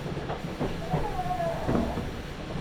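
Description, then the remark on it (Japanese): Steady rumble of a Nagoya Railroad (Meitetsu) Toyokawa Line limited express train bound for Gifu, running from Toyokawa-inari towards Kō, heard from inside the carriage, with a brief rising motor whine over the continuous rolling noise; no one speaks. “名古屋鉄道 豊川線 特急 豊川稲荷→国府”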